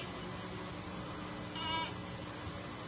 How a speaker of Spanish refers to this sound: Ese era un chivo, que Es ese sonido.